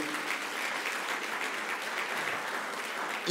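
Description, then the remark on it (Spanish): An audience applauds steadily, a dense wash of many hands clapping at an even, sustained loudness with no break and no voices standing out. “Dale un fuerte aplauso al Rey de la Gloria.”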